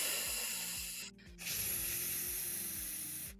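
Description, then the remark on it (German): A long, steady breathy hiss of air pushed out on an 'ffff' sound as a breathing exercise, briefly broken by a short pause before the exhalation resumes and continues evenly, with soft low tones underneath. “Aber eine kleine Sache ist auch, dass du zum Beispiel lange auf ein F oder ein S ausatmest.”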